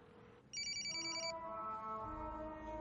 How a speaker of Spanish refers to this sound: El teléfono de Anacleto suena abierto y tirado en el suelo. En la pantalla dice Adolfo. Anacleto sale de la furgoneta y camina hacia el teléfono a unos 5 metros.